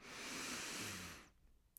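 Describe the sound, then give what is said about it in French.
A long, deep breath drawn in through the nose as part of a breathing exercise, a steady airy rush lasting just over a second before cutting off into near silence. It is fairly loud, with no talking. “Tu inspires,”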